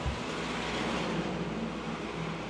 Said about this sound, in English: For the last week or so, things have been changing. The cars are shooting by, heading back to offices, schools, takeout coffees, and workplace banter.